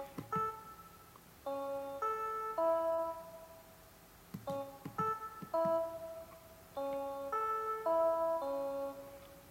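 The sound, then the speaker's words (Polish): Electronic tones from a Simon memory game play in short sequences drawn from its four tones, each a steady harmonic beep at a different pitch, repeated in growing patterns with faint clicks of button presses between them as the player repeats each sequence. “Simon polega na tym, że trzeba zapamiętać sekwencję e, dźwięków, co teraz zademonstruję.”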